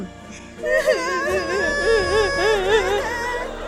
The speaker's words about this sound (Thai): ไม่นานนักเสียงร้องไห้และสะอึกสะอื้นของเหล่าต้นไม้ดอกไม้ที่ใกล้จะหมดเรี่ยวแรง ก็ได้สอดประสานกันขึ้นมาอย่างแผ่วเบา